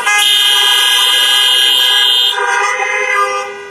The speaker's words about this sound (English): That's a good time to honk the horn. Everybody honk your horn.